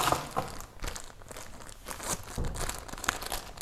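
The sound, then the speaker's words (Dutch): Crinkly plastic packaging rustles and crackles in irregular bursts as a halved sandwich is wrapped to take along on the bus, with sharp crisp crunches scattered throughout and no talking. “deze ga ik oppakken, ga ik inpakken. En dan kunnen ze mee in de, in de, in de bus.”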